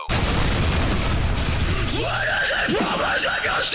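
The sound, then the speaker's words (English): A loud explosion sound effect bursts in abruptly and rolls on as a heavy, rumbling roar, with wavering, whistle-like tones rising and falling over the tail end. “More explosions than a low budget porno.”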